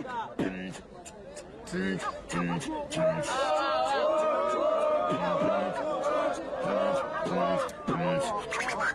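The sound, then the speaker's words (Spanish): A crowd at a rap battle cheers and shouts together as time is called on a round, with loud voices rising over rhythmic, sharp claps that keep up a steady beat throughout, lively. “¡Aplauso, Río Quilombo!”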